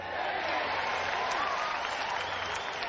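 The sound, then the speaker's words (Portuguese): Steady applause from a crowd for Schwarzenegger, dense and continuous for the whole stretch, with a faint hum underneath and a few voices blending into the clapping. “A gente tem que bater, olha, realmente agora, olha, palmas pro, palmas pro Schwarzenegger”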